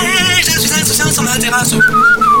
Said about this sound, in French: Dans la torpeur moite du jardin, on entend monter toute proche la mélopée du moustique.